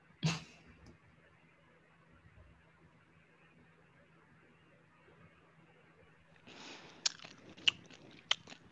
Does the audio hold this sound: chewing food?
yes